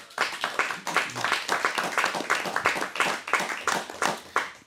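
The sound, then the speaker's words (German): An audience applauds steadily for several seconds, a dense, crackling wash of many hands clapping at once, with brief swells in loudness and no voices on top. “jetzt dein Applaus”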